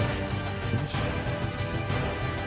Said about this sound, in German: Irgendjemand würfelt sehr laut